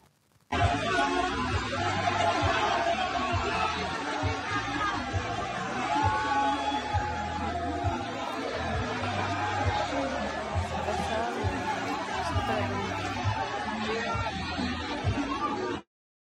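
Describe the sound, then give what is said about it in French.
Steady crowd chatter on a bar terrace at night in Kinshasa, where the President of the Republic drinks a beer among the crowd; many overlapping voices blend into a loud, continuous babble with a low rumble underneath, holding at an even level throughout. “voilà, donc euh, comme, un, comme n'importe qui, hein, il est euh, en train de boire sa bière dans, la foule.”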